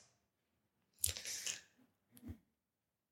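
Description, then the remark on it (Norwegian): Thin Bible pages rustle and flip as people leaf through their Bibles to Luke chapter 3, a longer crinkly swish followed by a couple of short page-turn sounds, fairly soft, with no one speaking. “Hører det bladars i bibler, og det skal du få lov til å bla opp til Lukas 3, 15.”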